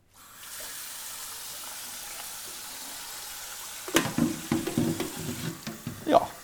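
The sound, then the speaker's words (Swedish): Water pours steadily into a kettle, a few litres for making soup broth, with an even rushing hiss for a few seconds, followed by several sharp metallic clanks and knocks as the kettle is handled and put on to boil. No one speaks. “Där jag fyller på några liter eh, ungefär så att du har tillräckligt för buljong.”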